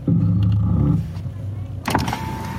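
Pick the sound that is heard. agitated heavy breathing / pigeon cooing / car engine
car engine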